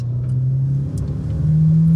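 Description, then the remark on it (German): A car engine drones loud, a steady low hum that climbs slightly in pitch toward the end as the car accelerates to overtake a tractor doing 25 km/h on a country road, with road rumble underneath and no talking. “Bis jetzt, jetzt überhole ich ihn nämlich.”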